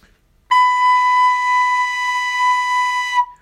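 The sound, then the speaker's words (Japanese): A recorder sounds a single high B, a clear, steady, fairly loud note held for nearly three seconds with a crisp start and a clean cutoff, and no talking over it. “はい、次し。”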